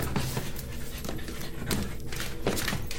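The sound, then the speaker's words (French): A dog named Philippine pants steadily, quick breathy puffs repeating in a rhythmic pattern with a few faint whiny tones mixed in, and no one speaking. “Mais qu'est-ce qu'elle a Elle a l'air bien essoufflée, Philippine.”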